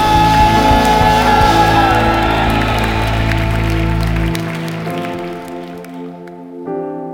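An audience at a Sunday church worship service bursts into loud, dense applause and cheering, clapping in glory and thanks to the Lord, over sustained keyboard chords; the clapping dies away after about four seconds, leaving the held music ringing on alone.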